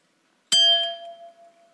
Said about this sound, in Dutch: Stel dat ik een speech ga geven, ik ping het glas en wat gebeurt er? Jullie horen het glas. Hoe komt dat? Wanneer ik tegen het glas tik, dan gaat het glas trillen en dan zet dat de lucht rond het glas in beweging.